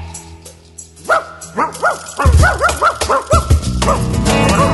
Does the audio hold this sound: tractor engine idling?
no